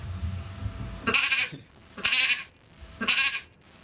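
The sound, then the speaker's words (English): A woman imitates a sheep, producing three nasal, wavering bleats spaced about a second apart, each loud with a buzzy, quavering tone. “I'm, I'm, guessing she learned this or recorded this in quarantine with her significant other, but she could do a bunch of impressions of pretty much any animal in a zoo.”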